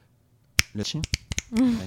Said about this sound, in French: c'est un bruit de claquement de doigts.